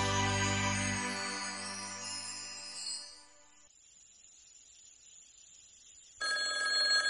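A shrill telephone bell rings loudly late at night, around two in the morning, fades into a short silence, then starts ringing again. The two harsh, metallic bursts are bright and piercing, with no voices.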